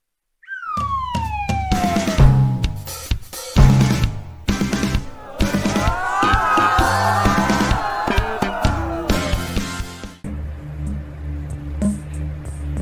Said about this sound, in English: Sound like a uh, shoot, a ring entrance or something. Okay, hold up. Mm-hmm. Sound like they finna go crazy.